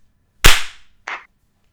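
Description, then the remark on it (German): Two sharp hand claps made as a sync clap after a countdown of 3, 2, 1, the first loud and ringing briefly, the second softer and quicker about half a second later, with no talking in between. “Achtung, ich zähle runter zum Klatschen.”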